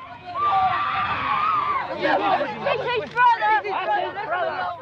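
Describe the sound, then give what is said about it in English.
Several women supporters shriek and wail at once, loud, in a chaotic overlapping crowd of cries and agitated chatter that rises and breaks in sobbing bursts, as uniformed police carry a coffin towards a helicopter. “The … brothers shouted that they had not been allowed to see their brother, and women supporters screamed and sobbed.”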